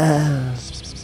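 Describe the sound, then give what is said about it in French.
A person imitates the owl from Bambi with a single low, drawn-out vocal note that slides slightly downward, then fades into quiet background hiss. “C'était le bruit du hibou de Bambi, c'est ça Oui, c'est ça.”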